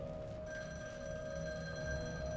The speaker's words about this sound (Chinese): 在一边看书的时候，突然间，在很远的地方传来电话的声音。